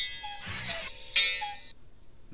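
A phone alarm tone plays, bright electronic chime-like notes with a buzzy, harmonic timbre, rising in a couple of short bursts, moderately loud, with no talking over it.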